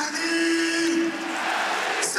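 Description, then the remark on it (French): A stadium crowd at the Méno applauds Sanson as he is substituted off for Persic during a football match, a dense, steady wash of clapping and crowd noise with a sustained tone running through the first half. “Voilà, il y a Sanson qui va sortir, applaudi par le public de la Méno, et c'est Persic qui va entrer.”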